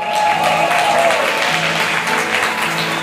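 A steady round of applause from a crowd, loud and dense clapping sustained for a few seconds with a faint murmur of voices underneath.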